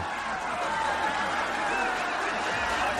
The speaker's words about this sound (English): Okay, so this is like the the one where it was the applause, only this one is now laughter.